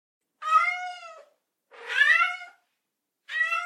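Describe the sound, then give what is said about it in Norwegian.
A cat meows three times, each call drawn out and slightly plaintive with gaps between, close and fairly loud with no other sounds around it. “Ja, vi skal inn i kattedyrenes verden,”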